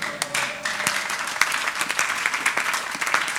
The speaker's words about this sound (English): i thought you were going to give jesus a sounding clap, a sounding ovation, a sounding appreciation.